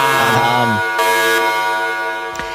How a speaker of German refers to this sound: Der Spoiler-Alarm.